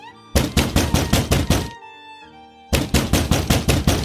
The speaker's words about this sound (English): Then the man began kicking and pounding at the door.